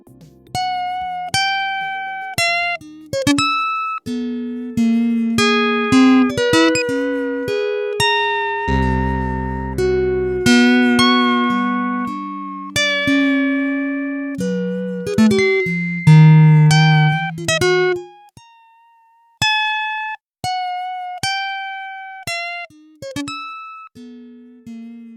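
A synthesized game-soundtrack melody hops between unrelated pitches in an erratic, jumpy line of plucky tones, with a low droning bass midway. It briefly stops, then resumes with sparser notes. No voices.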